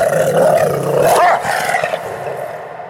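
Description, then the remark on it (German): A two-and-a-half-year-old German shepherd, the US president's dog at the White House, growls and snarls in one sustained, rumbling stretch, loud, rising briefly in pitch before fading away; no one speaks. “so wird der zweieinhalbjährige deutsche Schäferhund im Weißen Haus ehrfürchtig genannt, soll Berichten zufolge nämlich schon mehrfach Secret Service Agenten gebissen haben.”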